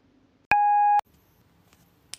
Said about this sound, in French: Laissez un message après le bip.